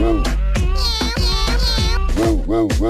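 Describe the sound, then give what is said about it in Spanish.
Several loud meows follow one another in quick succession, each a rising-and-falling cry, with a few drawn-out, higher wavering tones in the middle. “Y mi gato hace miau.”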